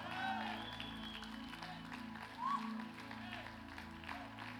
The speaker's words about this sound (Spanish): Dale un fuerte aplauso.